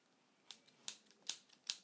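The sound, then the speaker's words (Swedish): A remote control clicks repeatedly while changing TV channels, each press a crisp, snipping, scissor-like tick arriving in a steady rhythm of about five strong clicks with softer ones between, fairly quiet. “Så då behöver jag bara hämta min fjärrkontroll. Ja, den, he, den låter så.”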